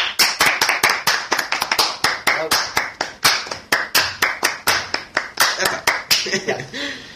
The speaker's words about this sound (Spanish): Hombre, por Dios, un aplauso para Marina.